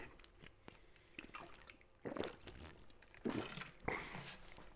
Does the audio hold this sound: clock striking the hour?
no